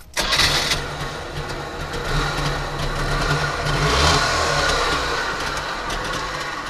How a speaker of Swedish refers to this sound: Vi hörde ljudet av en startande Trabant som jag fick ratta i hallen. jag måste säga att det var verkligen en kul upplevelse. Trabanten tillverkades mellan 1957 och 1991 och blev Östtysklands populäraste bil.